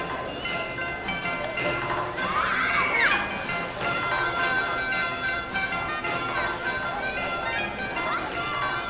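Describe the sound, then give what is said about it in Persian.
A steady, lively hubbub of many children's voices fills a crowded hall where the children sit happily together watching a film, overlapping chatter and occasional high squeals rising above the continuous crowd noise. “یک ساعت بعد سالن شلوغ و همهمه برپا بود بچه ها با شادی کنار هم نشسته و محو تماشای فیلم شده بودند.”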